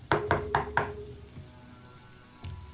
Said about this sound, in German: das Geräusch des Türklopfers halt in der ähm, in dem Haus wieder